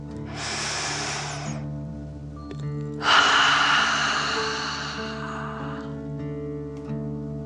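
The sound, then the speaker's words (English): A slow, deep 'dragon breath' drawn in through the nose, filling the belly, then a longer, forceful exhale as if breathing fire, clear over a soft background hum, with no talking. “Deep breath in and out.”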